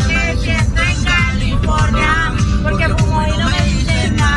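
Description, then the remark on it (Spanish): Loud music with a sung melody plays inside a moving car while a woman dances in her seat, steady, over a constant low rumble of the engine and road noise throughout. “Esa música es la que lleva el carro.”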